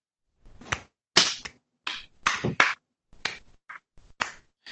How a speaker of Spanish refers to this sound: Daros un aplauso.